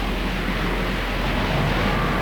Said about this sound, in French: Dehors, le vent a secoué, agité, tourneboulé les rêves d'Amsaki et le bocal de Rusto.